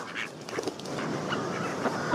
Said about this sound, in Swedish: Det är nu många olika sorters anka, gräsand, vanlig allmän anka. Säkert en kråka också någonstans där. Jag vet inte, för jag är inte fysiskt ute bland anker utan det här är bara en ljudfil jag har lagt till med anker. Visst är det härligt?